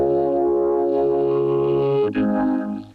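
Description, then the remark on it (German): A robotic, synthesized vocoder voice holds a steady buzzing tone that shifts pitch about two-thirds through, sounding loud before fading at the end. “Was Sie jetzt gehört haben, war ein Vokoder.”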